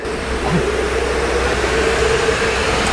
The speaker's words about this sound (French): Donc techniquement on a une grosse pompe, vous voyez, qui au fond du bassin là. Cette pompe là va à la fois envoyer l'eau par ici vers les poissons.